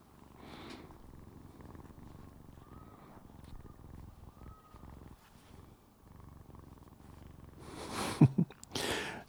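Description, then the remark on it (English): A cat purrs steadily right at the microphone, a low continuous rumble, then a couple of loud, sharp bumps and rustles near the end as the cat bonks and bites the microphone. “I'm trying to get the purr noise.”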